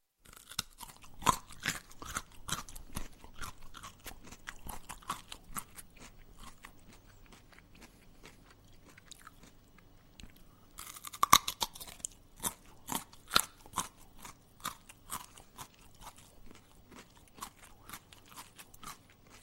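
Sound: crunchy chewing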